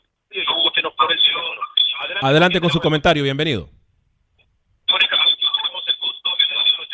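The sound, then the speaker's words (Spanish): A narrow, tinny phone-line voice of a caller to a radio call-in show speaks, and partway through a delayed copy of the speech from the caller's own radio echoes back over the line and muddies it, then a short silence and more talking. “Bueno, eh, por favor, si, si nos esté escuchando, bajen el volumen a su radio. Eh, o a su computadora, donde sea que nos esté escuchando, y eh, solamente escúchenos por, la, por el teléfono, por favor, para que no tengamos ese eco”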